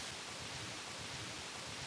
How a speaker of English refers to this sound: Right now it's a little low because we've been on the dry side, but hmm, I'd say we're at least 20 feet wide and hear the bubbling sound of the water next to the breeze. I so enjoy the serenity of this.